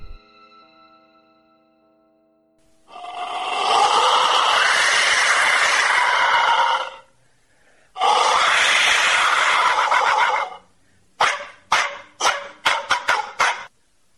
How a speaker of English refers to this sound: It's believed that these whistles were blown